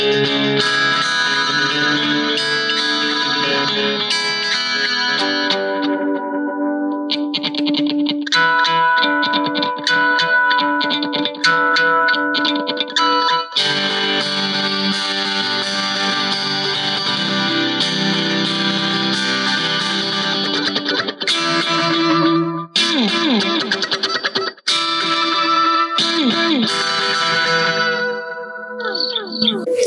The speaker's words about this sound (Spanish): Entonces, si uno no tiene que saturar el amplificador, tiene un sonido más o menos limpio. Pero si uno le da más ataque, suena con una distorsión, tampoco es tan fuerte.